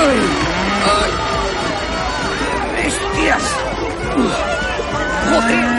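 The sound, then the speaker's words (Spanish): A large crowd in the stands of a bullring plaza applauds, shouts and cheers excitedly at the spectacle of runners and bulls piling into the entrance, a dense, steady roar of many overlapping voices that stays loud for the whole stretch. “Las gradas aplauden y vociferan de emoción ante el espectáculo.”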